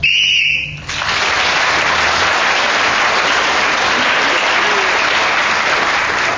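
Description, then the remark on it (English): A single shrill, high whistle blast lasting about a second ends the round, immediately followed by loud, steady applause from an audience that continues to the end. “They're all trying the Clement Freud trick of getting in just before the whistle.”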